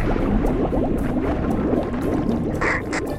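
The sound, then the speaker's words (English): Water surges and churns loudly and steadily as the outer sea door of an airlock chamber opens, a dense bubbling rush that fills the whole moment without pause, with a brief brighter splash near the end. “Opening outer sea door.”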